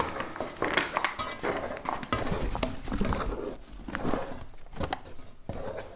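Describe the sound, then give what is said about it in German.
Continuous scraping and soft thudding of a spatula stirring thick dough in a bowl after flour and a teaspoon of cocoa powder were added, with irregular clicks and rubbing sounds and no talking. “Und dann 500 Gramm Stinkemehl. Ich mache einfach nach Gefühl ein bisschen die Hälfte. Ja. Passt. Okay, rühre nochmal.”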